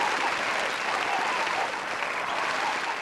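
Steady audience applause for the SJD's 35th anniversary, a dense wash of many hands clapping at an even loudness for about three seconds, with no break or voice standing out above it.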